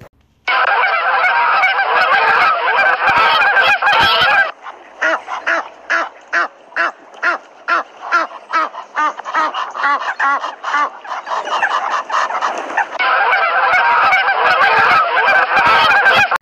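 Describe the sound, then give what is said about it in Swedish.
A flock of geese returning home from pasture honk and cackle loudly, a dense chorus at first, then a run of rapid rhythmic honks before the clamor swells again. “Plötsligt blev det ett fasligt liv utanför för gässen kom hem från betet och lät höra sitt hesa kackel.”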